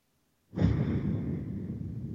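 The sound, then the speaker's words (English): After a brief silence, a loud, breathy exhale starts abruptly and rushes on for well over a second, with no talking. “Chicago, Columbus, heavy breathing.”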